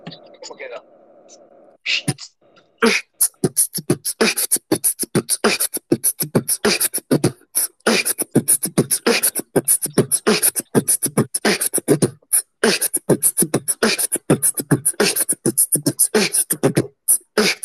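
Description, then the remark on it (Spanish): After a brief moment of speech, a voice imitates a drum kit beat: a fast, steady run of crisp bass drum, snare and cymbal-like hits, loud, continuing for over fifteen seconds. “¿Y sabes lo, lo, que te enseñaba antes del, del bombo, plato, plato, bombo, plato, caja, plato?”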